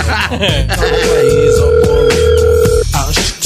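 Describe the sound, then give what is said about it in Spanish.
A telephone rings with one steady, unbroken electronic tone lasting about two seconds, sounding clearly over a loud, bass-heavy music bed, as a call comes in on the show El Cucuy de la Mañana. “Oye, contesta el teléfono, hombre.”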